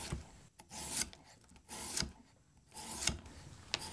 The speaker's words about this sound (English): And I'm just going to slice these into thin rounds, not super thin, because again, you want to retain that crunch. If they get too thin, they tend to get a little flimsy when they're in the brine.